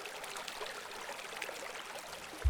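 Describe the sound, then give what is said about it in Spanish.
A steady babble of running water from a small stream (quebrada) at Cantos de Agua, continuous, with bright splashing textures throughout and a brief low thump near the end. “Y eh, hizo unos reservorios de agua también que fueron muy importantes en ese trabajo y la quebrada empezó a cantar.”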